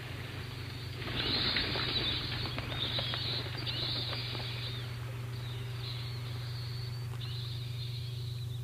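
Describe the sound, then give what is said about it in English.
A Ring Chime doorbell tone made of fluttering bat wings, played when someone presses the bell: rapid papery flapping in several bursts over a low steady hum, with no voices. “Bats. Bats.”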